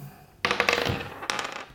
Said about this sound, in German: Sonst würde ich sagen, würfeln wir doch einfach mal los, oder?